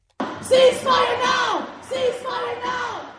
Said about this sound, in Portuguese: Os gritos por cessar fogo em Gaza marcaram a tarde deste sábado no centro de Lisboa. Centenas de pessoas participaram na Marcha Nacional Fim ao Genocídio, Palestina Livre Já, num protesto convocado pelo Coletivo pela Libertação da Palestina,